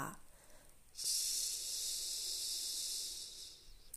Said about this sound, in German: Und dann veränderst du noch einmal die Atmung auf das vordere CH, wie bei ich und atme aus auf CH.